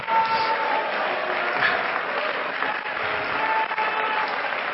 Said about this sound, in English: Somebody clap your hands and shout unto the Lord.